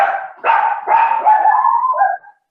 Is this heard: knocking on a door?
no